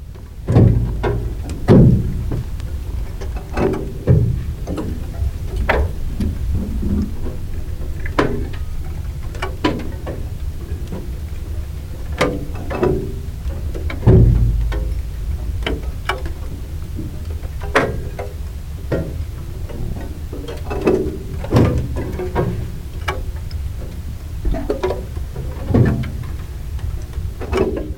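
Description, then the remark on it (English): Irregular sharp clicks and small cracks from desert rocks heating up and cooling down pop out of a low, steady rumble, scattered unevenly over the whole stretch, some crisp, others softer, with no voices. “yeah, so I went there to make some recordings specifically of the sounds of the rocks sort of heating up and cooling down. They make this sort of click, clicking, cracking sound as they do that.”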